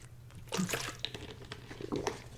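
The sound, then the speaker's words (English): Someone drinking clean water in the morning, with wet sipping and a couple of soft gulping swallows over a low steady hum. No one speaks. “Clean water in the morning, that's not too bad.”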